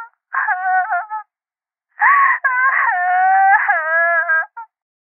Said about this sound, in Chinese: 隔着电话，穆莎的哭声越来越大。冷夜晨被他的抽泣声扰得心烦。